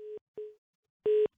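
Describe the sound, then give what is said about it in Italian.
A telephone line tone after the last caller's phone call to a call-in programme dropped: three steady mid-pitched beeps, the first two shorter and quieter, then a pause and a louder final beep. No voices are heard. “È caduta.”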